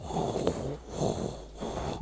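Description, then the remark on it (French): A person imitates a cat's purr with a low, rattling throaty rumble in two or three drawn-out pulses, with no words spoken. “Ah, j'essaie de ronronner, j'y arrive pas trop.”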